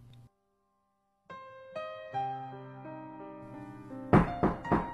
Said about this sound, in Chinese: 忽然传来了敲门声